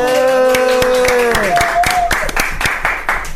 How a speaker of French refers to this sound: Ah, ça s'applaudit public alors.